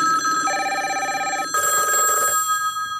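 A telephone rings twice in close succession as a call is placed to the owner of a football pub in Munich, a steady electronic warble repeating clearly and loudly with no talking over it, trailing off after the second ring.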